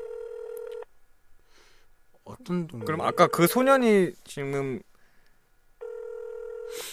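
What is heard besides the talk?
telephone call ringing tone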